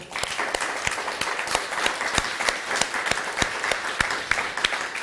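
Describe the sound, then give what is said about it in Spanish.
An audience claps steadily for several seconds to welcome the community watching from the United States, a dense patter of sharp overlapping hand claps at a fairly even loudness with no voices over it. “Un fuerte aplauso.”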